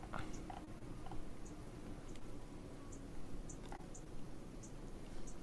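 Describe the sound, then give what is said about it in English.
A handful of soft, quick computer mouse clicks, made while clicking on the wrong spot, scattered irregularly over a quiet, hissy background, each one short, with no talking. “Clicking on the wrong spot.”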